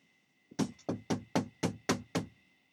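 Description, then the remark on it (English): A quick, steady run of about seven firm knocks on a door, evenly spaced, with nothing else around them. “There was a knock on the door.”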